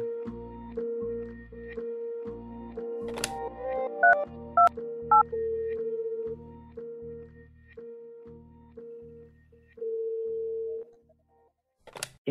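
Electronic telephone tones of a call to Spain's free 016 gender-violence information and advice helpline: a steady, pulsing line tone with a few brief keypad beeps partway through, clear, with no voices, ending just as the call seems to connect.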